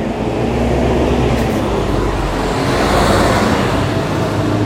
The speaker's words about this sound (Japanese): すいませんすいませんちょっと今日うるさくてちょっと道道でめちゃくちゃ、えー、近くをバスが通りまして